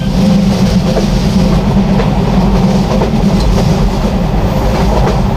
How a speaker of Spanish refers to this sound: Y el tren al que nos hemos subido es el Costa Verde y viaja despacio. Es uno de los trenes turísticos que tiene Renfe en nuestro país y recorre la ruta entre Santiago de Compostela y Bilbao.